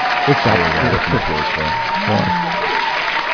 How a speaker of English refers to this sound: So Where's our applause? Oh, there it is.